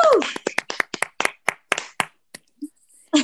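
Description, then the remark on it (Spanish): A quick run of about a dozen sharp, crisp hand claps in an uneven rhythm, fading out after two seconds. A brief vocal sound comes at the start and another at the end. “Ya sé, un aplauso, por favor, todos un aplauso.”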